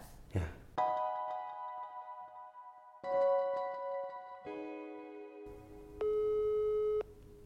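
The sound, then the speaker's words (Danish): A phone line's outgoing call tone sounds as a series of steady electronic tones, each held for a second or two at a shifting pitch, clear and fairly loud with no voices. “så vi skal ringe til Freja og høre, hvad så Freja?”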